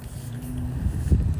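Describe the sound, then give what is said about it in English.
A loud car engine rumbles outside, a low steady drone growing heavier as the vehicle draws closer, with no voices over it. “oh, shoot, there's a loud car coming.”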